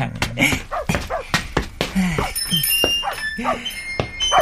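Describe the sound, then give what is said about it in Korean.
A stray dog named Miho, pressed against a window, gives a string of short, high whimpers and yelps, repeating in quick uneven bursts over a soft background bustle. “아니, 집 없는 강아지 같아. 음식 냄새 맡고 오는지 가끔 이렇게 창문에 붙어서 들여다보네.”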